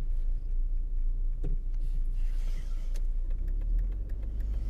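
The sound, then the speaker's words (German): A large bus passes on a wide street, its deep engine rumble steady and loud, with a brief hiss of air and road noise rising midway before the drone continues. “Oh, jetzt ist hier Bus, weißt du, auf der dicken Straße ist nichts dick eigentlich, aber der Bus ist so groß und macht die ganze Straße kaputt, also zu kann nichts fahren.”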